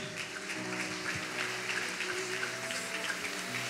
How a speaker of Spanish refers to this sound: cuántos le pueden dar un aplauso a Dios?